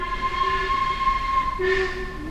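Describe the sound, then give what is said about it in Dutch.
A train pulls in at the station in Syracuse, Sicily, a steady high-pitched metallic whine riding over a low mechanical rumble, with a brief louder screech of brakes near the end. No one speaks. “Maar als onze trein dan arriveert, dan ben ik echt wel teleurgesteld.”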